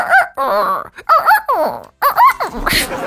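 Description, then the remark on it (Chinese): A person imitates the crow of a particular rooster whose third note falls instead of rising like other roosters', in a loud, strained voice: a string of drawn-out calls whose pitch climbs, then drops on a falling note, ending in a breathy, raspy exhale. “小时候二姑家养的公鸡啊，叫声跟其他公鸡不一样，别的公鸡都是一个音阶比一个音阶高嘛。他家那个公鸡第三个音阶是降调，才可以脑补体会一下。”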